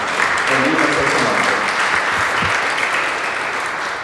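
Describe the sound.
A crowd applauds steadily, a dense wash of many hands clapping at once that holds for several seconds, with faint voices mixed into the din.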